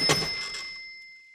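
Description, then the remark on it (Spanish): A telephone bell rings once, a sharp metallic strike whose bright, high tones hang on and slowly fade over about a second. No one speaks. “No atiendas ese teléfono”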